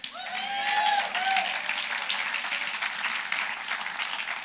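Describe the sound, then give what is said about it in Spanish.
An audience applauds steadily, dense clapping filling the space for several seconds, with a few cheers and whoops rising over it near the start. “Eso es la buena nueva Con eso podemos aplaudir, gritar.”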